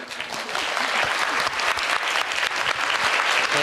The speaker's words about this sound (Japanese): メインスタッフの皆さんありがとうございます皆さんもう一度メインスタッフに拍手をお願いします